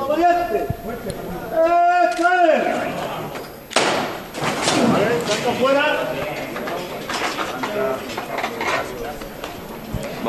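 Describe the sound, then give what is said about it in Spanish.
Heavy wooden knocks and thumps as the stilts are pulled away beneath a procession float on Calle San Julián in Seville to clear the doorway, one sharp thud standing out, amid a busy background of a packed crowd's voices and shouts. “Ese sonido que escucháis es que están retirando los zancos.”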